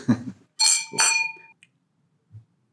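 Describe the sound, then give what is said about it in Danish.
Two bright clinks of wine glasses touching in a toast, each leaving a clear ringing tone that fades quickly, preceded by a brief low murmur and followed by near silence. “Skål.”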